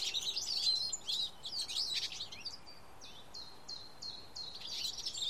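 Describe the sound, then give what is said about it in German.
Hungry sparrow chicks chirp insistently from a nest above, a busy cluster of high, rapid cheeps with a run of evenly repeated calls near the end, with no talking. “Ah, es sind die Spatzenkinder in ihrem Nest. Sie haben scheinbar großen Hunger.”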